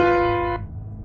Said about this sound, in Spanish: el tritono, para las personas que a lo mejor no estudian música, es un intervalo musical o son notas musicales que pues son un, sonido muy tensionante